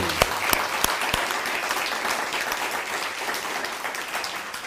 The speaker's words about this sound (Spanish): Vamos a dar un fuerte aplauso a todas las naciones.